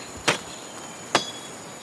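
Two sharp machete chops slice through jungle vegetation about a second apart, crisp, as people cut their way deeper into the jungle, over a steady background hum of insects.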